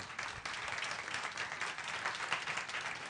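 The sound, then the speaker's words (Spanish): An audience applauds the speaker steadily, many hands clapping in a dense, continuous wash of sound with no pauses or voices standing out. “Cuando yo platico que yo siempre me quería llevar las palmas, ahora puedo decir con toda seguridad que esos aplausos que ustedes acaban de, de llevar a cabo y de darme, definitivamente yo quiero que sean solamente para Dios.”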